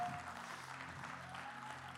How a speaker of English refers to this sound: Now give Jesus a hand clap for the work that he's done.